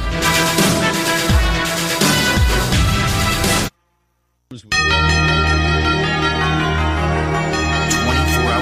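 Bells ring out loud and close in a dense, layered peal, break off into a moment of silence, then resume with a sustained, shimmering chime that rings on steadily.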